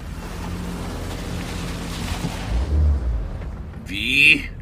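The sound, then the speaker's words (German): A car engine rumbles and idles with a low thud partway through, then revs up with a rising whine as the driver starts off and the car pulls away, fairly loud. “Ida startete den Motor und fuhr los.”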